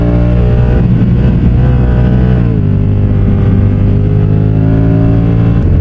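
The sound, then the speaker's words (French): A Honda touring motorcycle engine drones steadily while riding, loud, its pitch dipping briefly as the rider shifts gears before settling back into a smooth, continuous hum. “Franchement, c'est une chouette moto.”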